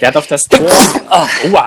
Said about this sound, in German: Ich hab's beniest. Gesundheit.